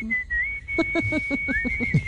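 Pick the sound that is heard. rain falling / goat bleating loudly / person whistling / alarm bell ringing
person whistling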